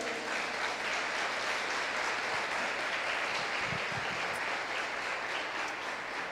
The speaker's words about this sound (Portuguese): Você pode aplaudir o Senhor por isso aí?